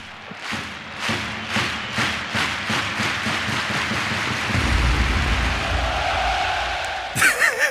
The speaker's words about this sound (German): Und deswegen hast du gerade Stadiongebrülle bekommen.